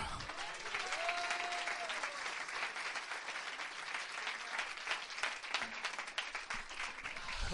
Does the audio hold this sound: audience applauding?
yes